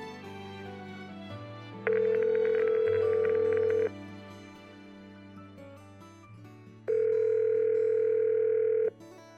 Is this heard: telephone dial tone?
yes